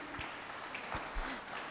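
An audience claps together in a steady, soft patter of applause lasting a couple of seconds, heard from a little distance, with faint voices mixed in.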